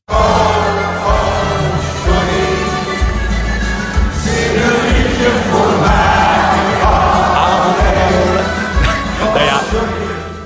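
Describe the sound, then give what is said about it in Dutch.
A loud, dense roar of a concert crowd in a concert hall cheering and shouting over pounding bass-heavy music, sustained and energetic without a break from start to finish. “Het is wel echt losgegaan daar. maar dat is ook de bedoeling.”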